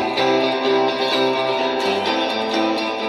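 A loud, dense stretch of band music with distorted, effects-heavy guitars and sustained chords shifting every half second or so, playing steadily with no voices, used as a show's opening jingle.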